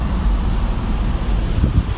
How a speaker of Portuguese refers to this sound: tô saindo da loja com minha picape F-150 da Ford. Coisa mais linda do mundo.